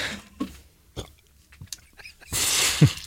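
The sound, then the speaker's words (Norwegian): A throaty burp erupts after a few small clicks and breaths, rising into a loud, rough belch near the end with some breathy noise around it. No one speaks. “Jeg må vente, jeg må rape.”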